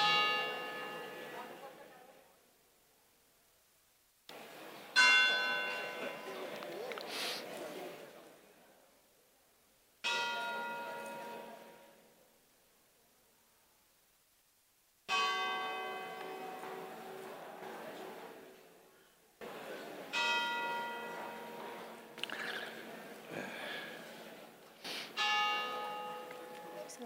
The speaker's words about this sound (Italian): quel vecchio film di Don Camillo, quello che si suona di campana